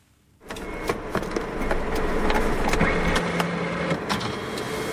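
After a moment of silence, a Toyota hydrogen fuel cell truck starts as the key is turned, with a low, steady electric whirr and hum, scattered faint clicks and a brief rising tone layered in, on a Toyota research campus in Japan.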